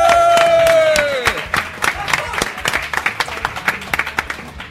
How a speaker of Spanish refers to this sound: Y esto no es un programa más de Pánico en el Núcleo porque estamos en las sextas jornadas de podcasting de Alicante. ¡Un aplauso!